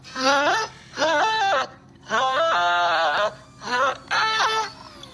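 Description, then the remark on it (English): A person hums a tune while working, in five loud, wavering phrases separated by short pauses, the pitch sliding up and down in a sing-song, slightly whiny way. “I like to hum when I work.”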